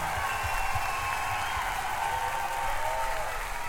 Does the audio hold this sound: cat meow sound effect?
no